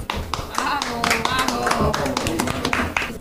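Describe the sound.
Steady applause from a crowd at a press conference, many hands clapping in a dense, continuous patter, with voices murmuring underneath throughout.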